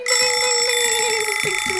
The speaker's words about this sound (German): Und der bescheuerte Wecker. Es ist vorbei. Ich äh, suche immer das Knöpfchen hier und der bescheuerte Wecker hier